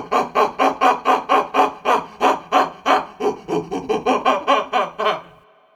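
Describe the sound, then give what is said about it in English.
A person imitates a howler monkey call to draw out wild howler monkeys, with a rapid series of about twenty rhythmic, breathy hooting grunts, loud, rising and falling steadily for several seconds before trailing off. “That that is only an approximation, but it was good enough to fool a howler monkey.”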